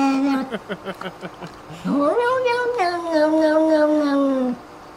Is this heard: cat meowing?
yes